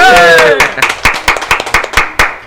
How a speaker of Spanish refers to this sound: Un aplauso para ese resumen.